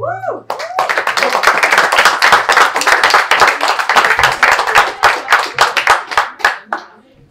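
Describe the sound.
A poetry slam audience breaks into applause for the next performer, a dense stream of overlapping handclaps that stays steady and loud for several seconds before quickly tapering off. A brief voice is heard at the very start.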